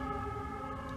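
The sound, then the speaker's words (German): Fire engine and ambulance sirens blare loudly and steadily, a sustained wailing tone layered over low traffic rumble, with no talking. “Das war die Feuerwehr. Hat. Und ein Krankenwagen.”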